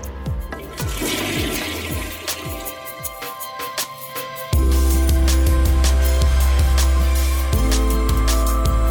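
A toilet flushes with a loud rushing swirl of water, then settles into a steady, heavy low roar as the bowl drains and refills. No one speaks.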